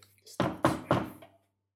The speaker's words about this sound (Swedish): Så, så du börjar med att knacka, knacka på där.